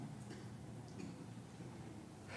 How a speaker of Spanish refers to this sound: Porque no quiero estar afuera de la casa de Dios y ver aquí a don Sadoc y a los sacerdotes estar sufriendo mientras trabajan para Dios y, se están escuchando los martillazos.